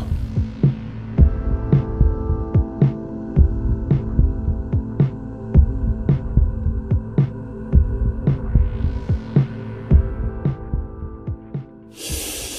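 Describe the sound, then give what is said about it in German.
Rhythmic whooshing pulses of blood flow from an intravascular ultrasound probe inside a blood vessel, steady and throbbing at a quick regular pace over a low hum, ending in a short burst of hiss. “Es ist, äh, es ist äh, sehr intensiv und äh, dass du jetzt mit dem Ultraschall in einer, in einer Ader zu Erkenntnissen kommst, das äh, habe ich natürlich nicht gewusst vorher.”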